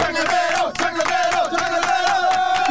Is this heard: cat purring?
no